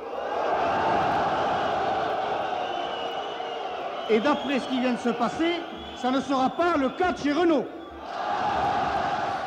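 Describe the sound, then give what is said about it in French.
A loud, sustained crowd din with a shrill whistling edge and jeering as CGT general secretary Georges Séguy is whistled at in Boulogne-Billancourt, dropping away while a man speaks over it, then swelling back up at the end. “Georges Ségui, sifflé, secrétaire général de la CGT, sifflé dans son fief de Boulogne-Billancourt.”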